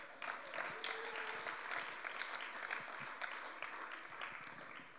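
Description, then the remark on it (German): A short burst of steady clapping from a group, a dense, even patter of hands that holds for several seconds at moderate volume with no voices over it. “Danke euch. Noch einen kurzen Applaus.”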